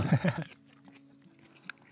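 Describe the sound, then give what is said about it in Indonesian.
A loud crunchy burst of chewing at the start, then quieter scattered crackles of someone munching crispy lettuce leaves that crunch like kerupuk crackers. “Gadingnya sama kayak kerupuk. Kriuk-kriuk banget.”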